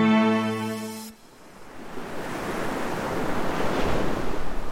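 Ocean waves wash steadily onto a beach, a broad rushing surf that swells gently, following a brief held musical tone that cuts off at the start.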